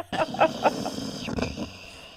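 Diesel, a dog asleep in a newsroom, snores: a few quick rasping, grunting breaths in an uneven rhythm, then a longer rumbling snort that fades out, with no talking.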